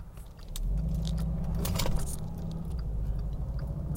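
Steady low rumble of road noise inside a moving car, continuous and fairly loud, with scattered light clicks and jingles on top and no one talking.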